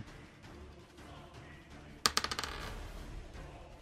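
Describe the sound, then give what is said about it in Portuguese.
Dice clatter onto a table as the enemy's initiative is rolled in a game, a quick burst of sharp clicks that bounce and settle within about half a second against a quiet hum. “Ele vai jogar a iniciativa dele.”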